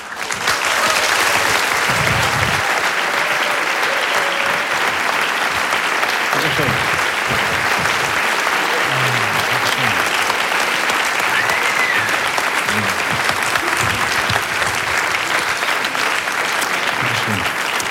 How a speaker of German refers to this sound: Hier ist für Sie bitte mit einem donnernden Applaus Kabarettist Florian Schröder.